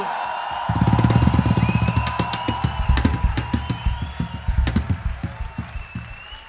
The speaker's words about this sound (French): tonnerre d'applaudissements pour Monsieur Wolfgang